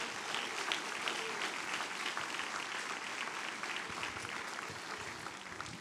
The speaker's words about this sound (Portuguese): participe desse culto como se estivesse aqui, é o culto no lar, você vai aplaudir forte o nome de Jesus.